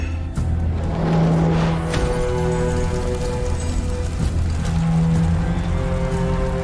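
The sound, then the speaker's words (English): A small model car engine runs continuously, a loud buzzing motor drone with steady pitch and a slight rattle, with no one talking. From a Far Cry 6 trailer, where the model car is on fire. “Yeah, hey, it's that model car, but on fire.”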